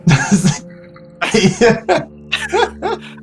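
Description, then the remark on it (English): A person vocally imitates coughing up a furball, producing a string of about five raspy, gagging hacks and throat-clearing bursts, fairly loud, with no words spoken. “okay, so that's that's me coughing up a furball.”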